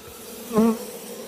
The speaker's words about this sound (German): Dadurch beruhige ich die Bienen ein bisschen.